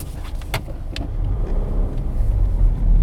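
A car engine rumbles steadily, low and heavy, swelling slightly louder over a few seconds, with a couple of brief clicks near the start and no voices.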